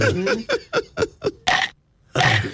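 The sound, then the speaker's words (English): A loud electronic burp sound effect from a novelty sound button, a rapid string of croaking bursts ending in a long drawn-out belch, with a short gap before a final rasping blast. “that sounds more like a burp button.”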